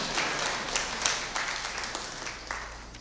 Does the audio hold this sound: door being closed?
no